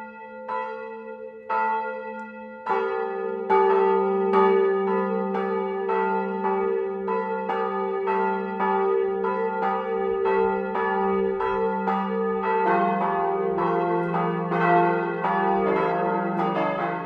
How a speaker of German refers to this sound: Es ist 12 Uhr. Das Mittagsläuten kommt heute aus Gilching in Oberbayern. Georg Impler hat die St. Vitus-Kirche besucht, in der eine der ältesten Glocken Deutschlands läutet.